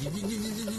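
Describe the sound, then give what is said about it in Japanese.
A voice imitates a cuckoo clock's double doors opening slowly and heavily, as when its battery is running low, with a drawn-out, strained "gigigigi" creak held steadily for just under a second. “やっぱり勢いよく出てきてくれないと困っちゃいますよねゆっくり開くんだら扉が観音開きで重々しい感じで開いて”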